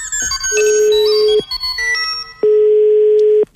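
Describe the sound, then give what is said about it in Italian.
Steady electronic telephone line tones sound in three bursts: a long loud one, a shorter fainter one, then another long loud one. The tones are clear, with no talking. “Si apprestano a comunicare con noi usando lo strumento a noi più familiare. Il telefono.”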